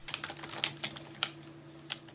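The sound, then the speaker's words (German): Rapid, uneven clicking of a computer keyboard being typed on, fairly quiet, with a steady low electrical hum underneath and no voices. “Das Tastaturklackern, das kennen wir ja zurzeit alle nur zu gut, oder?”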